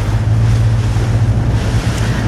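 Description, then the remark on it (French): Loud, steady rush of wind and churning waves around a small fast rigid inflatable boat heading out to an offshore wind farm construction site, with a low engine drone underneath and constant gusty buffeting on the microphone. “Et nous embarquons à bord d'un semi-rigide direction donc ce chantier offshore.”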